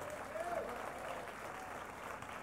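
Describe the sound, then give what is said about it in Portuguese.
An audience claps for Jesus in a steady, dense, continuous wash of applause, with faint voices and a brief shout rising over it. “Você pode dar um aplauso a Jesus por isso?”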